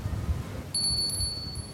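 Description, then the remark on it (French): A storyteller's small hand bell is struck once and its high, clear tone rings on steadily until the end, sounding fairly soft over a low background rumble, with no one speaking. “C'est ma cloche qui choisit les histoires que je vais raconter. Si le son me plaît, je sais que l'histoire va me plaire.”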